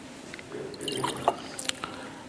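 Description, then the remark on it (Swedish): Water trickles and splashes briefly into a glass, a quiet liquid pour with a few sharper drips and clinks over about two seconds, with no talking. “Behöver man nog lite vatten på det här, eller vad tror ni?”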